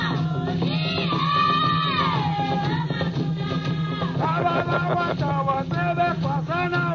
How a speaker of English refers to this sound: This is a song sung to one who feels he is going mad who feels he is being inhibited by Wailili, Walili, the spirit of lightning who causes madness. It is a lament to get rid of the nuttiness in your soul.